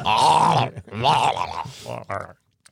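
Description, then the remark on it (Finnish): Strained human grunts and groans, loud, in a few effortful bursts over about two seconds, the sort of noises someone makes while exercising, then silence. “Tämä kuulostaa mikä se aamu, aamu jumpalta.”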